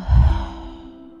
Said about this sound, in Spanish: Así que inhalo y exhalo y vuelvo a inhalar contigo una vez más. Y exhalar una vez más y vuelvo a inhalar una vez más. Y exhalo